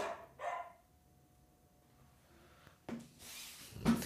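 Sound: dog barking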